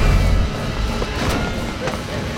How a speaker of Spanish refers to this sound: Se cierra la puerta.